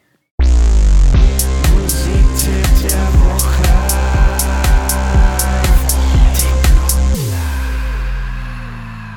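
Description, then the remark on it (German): A short, loud musical jingle with a steady, punchy beat and sustained tones. It starts abruptly, plays for about seven seconds with no voices, then cuts off and rings out briefly. “ich mache jetzt mal kurz den Jingle”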